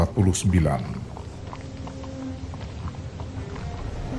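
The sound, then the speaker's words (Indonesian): Horse hooves clip-clop in a steady walking rhythm at moderate volume as a man rides toward the city gate of Tangier on the North African coast on a cold morning in 1349, with a voice briefly audible at the start over a low background hum. “seorang pria berkuda menuju gerbang kota Tangier di pantai Afrika Utara hari ini adalah akhir dari perjalanannya.”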